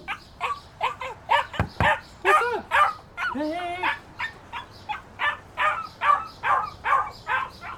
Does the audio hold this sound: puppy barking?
yes